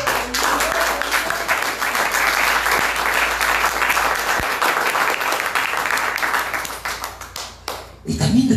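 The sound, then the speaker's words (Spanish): An audience bursts into dense, steady applause for the Lord, many hands clapping together for about eight seconds before it thins out, with a voice briefly emerging as the clapping ends. “Cuando le quieren dar algunas palmas al Señor.”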